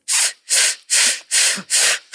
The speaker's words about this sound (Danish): lave den her øvelse, men tilføj, øh, når du trækker vejret ind, så træk vejret ind på F